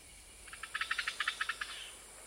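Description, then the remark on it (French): A rapid series of about a dozen bright, buzzy chirps from insects in meadow grass pulses in a steady rhythm, rising and then fading, alone over a faint hiss. “L'herbe, poursuit Chini, l'herbe en était à nos pieds est empli de petits musiciens. Les sons de la nature ne s'interrompent jamais.”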